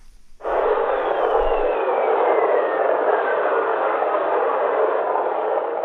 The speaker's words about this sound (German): Planeten haben auch Blitze. Und auch diese Messdaten kann man wieder so lange verschieben im Frequenzspektrum, mhm. bis sie hörbar gemacht sind.